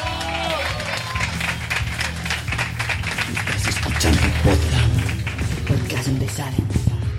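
An audience breaks into sustained applause to welcome a guest, the country's youngest podcaster, for an interview: a dense, steady clatter of many hands clapping at once, loud throughout with a few cheers and voices mixed into the crowd noise.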